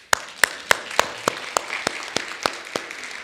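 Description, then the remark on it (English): An audience claps together in a steady, even rhythm, about ten sharp unison claps in quick succession, crisp and moderately loud, with no talking. “Let's clap.”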